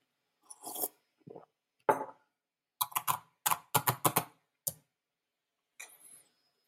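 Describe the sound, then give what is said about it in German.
Crisp computer keyboard typing in short uneven bursts, a quick run of key clicks clustered in the middle, with a few softer slurps of coffee before it and no one talking; a design researcher at work at the Design Research Lab of the Universität der Künste Berlin. “was ähm, ihr gehört habt, ist mein Schlürfen mit dem Kaffee und mein Tippen auf der Tastatur.”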